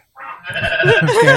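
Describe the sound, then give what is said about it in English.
A goat bleats loudly, a nasal, quavering cry that begins softly and swells into a longer wavering call, with no talking over it. “Oh, goat, I love you.”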